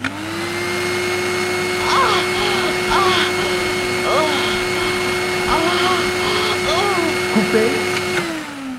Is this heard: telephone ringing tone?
no